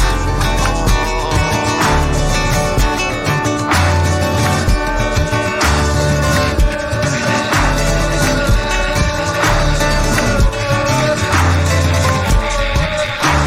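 A song plays loud and continuous, with a full band sound of sustained melodic instruments over a steady, regular drum beat that holds its energy throughout.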